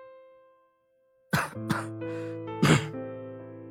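A short fit of harsh, choking coughs from choking on the smoke of a lit cigarette: three raspy bursts, the last the loudest, over a steady, quiet musical drone. No one speaks.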